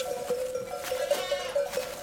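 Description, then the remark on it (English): A herd of hyperactive goats bleats continuously, several overlapping calls blending into a busy, wavering chorus, with a faint bell-like tone sustained underneath. “It was like a mosh pit of goats”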